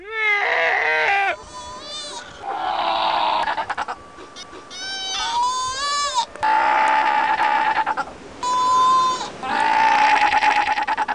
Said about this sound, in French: Cri d'une jeune otarie euh, de... antarctique. c'est un cri, donc un cri d'appel pour avoir les soins de sa mère.